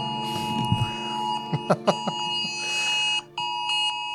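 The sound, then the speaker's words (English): A loud, steady electronic alert tone with layered pitched harmonics blares continuously, broken by brief chirps and one short gap near the end, as several phones sound a national emergency alert test at once, on October 4th at 1:18 p.m. “So, if your phone went off on October 4th, then you know that we were recording on October 4th at 1:18 p.m. when all of our phones went.”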